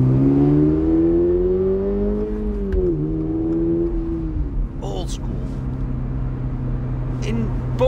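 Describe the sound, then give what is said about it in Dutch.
The engine of a brand-new Toyota GR86 sports car, front-engined and rear-wheel drive, revs up during a test drive, its pitch climbing over a few seconds before settling into a steady, loud drone, continuous throughout with no one speaking. “test de gloednieuwe Toyota GR86.”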